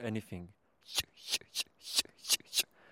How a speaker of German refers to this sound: Knappen, Trillern, Hauptschlag und Wetzen. So nennt der Fachmann die vier Motive des Auerhahn-Gesangs auf Deutsch.